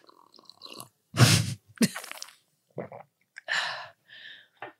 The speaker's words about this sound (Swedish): Jag måste ta en klunk med vatten. Jag är så torr i min strupe. Men så torrt.